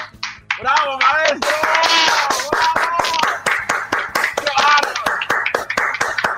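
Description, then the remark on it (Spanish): An audience claps in sharp, fairly steady handclaps that continue throughout, loud and rhythmic, while excited voices talk and call out over them. “No, no, tienes que aplaudir.”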